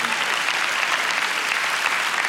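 Steady audience applause fills the moment, a dense, even wash of many hands clapping at once with no voices breaking through, holding constant from start to finish.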